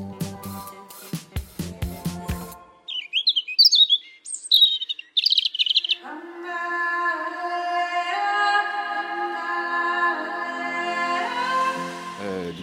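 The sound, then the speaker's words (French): Parrots call in the greenhouses of Auteuil in the Bois de Boulogne, Paris, in a burst of sharp, squawky chirps, followed by a long, steady whistling cry that holds for several seconds. A few percussive knocks come first. No one speaks. “Ils ont fondé il y a deux ans leur propre label Distill Records et nous en parlent entre deux chants de perroquets”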